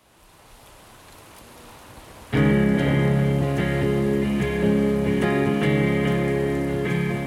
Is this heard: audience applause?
no